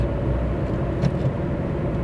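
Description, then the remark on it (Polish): A steady, low humming drone like an electric car's artificial exterior warning sound, continuous and fairly loud for about two seconds, with a faint brief swell midway and no voices. “Przecież już teraz jest mnóstwo samochodów, dokładnie tych samych marek, które już teraz mają montowane głośniki służące do tego, żeby e, emitować dźwięk na zewnątrz.”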